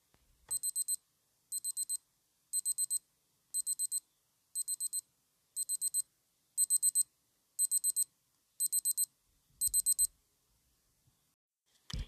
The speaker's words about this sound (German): Und ja, jetzt kommt der Piepton.